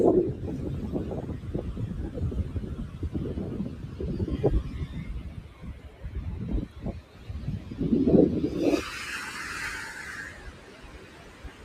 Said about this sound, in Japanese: あ、葉山じゃないんですけど、江ノ島の近くまで来てまして、波音聞こえてるかな